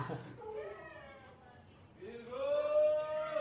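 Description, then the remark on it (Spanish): Dogs howl in drawn-out, wavering wails in reaction to a passing gas-delivery truck: one howl fades, then a second louder one rises and holds, with no talking over them. “Y eso que escuchan allá son los perros reaccionando al del gas.”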